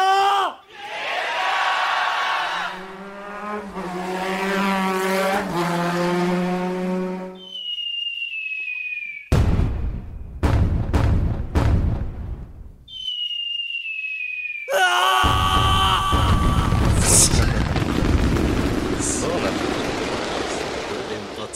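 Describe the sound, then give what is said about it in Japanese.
After a voice, fireworks whistle upward and burst in a quick series of loud, crackling booms, another whistling launch follows, then a cheering crowd swells in a roar. “打ち上げられて打ち上げられて花火バーバーバーンとやられてるでしょ”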